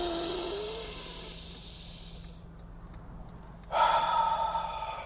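A long, deep breath drawn in with a hissing rush during a breathing exercise, a quiet pause as it is held at the top, then a forceful exhale whooshing out. No one speaks.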